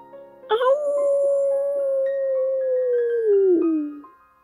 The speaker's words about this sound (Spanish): Un aullido escalofriante los hizo parar de golpe.